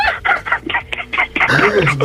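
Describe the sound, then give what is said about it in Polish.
A rooster, kept tied to a radiator with a USB cable, sounds off: a run of short, loud clucking bursts that swell into a longer, wavering crow at the end. “E, kogut był przywiązany takim kablem od USB do kaloryfera po prostu”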